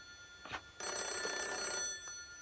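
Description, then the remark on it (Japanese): An old black rotary telephone's bell rings in a sustained metallic trill, loud, after a brief short burst, with a faint clang near the end, in a railway station staff room. No one speaks. “まるで私に出ろと言わんばかりに鳴り響く音に、なぜか私は電話に出なければと思い、駅員室の扉に手をかけようとしたとき、”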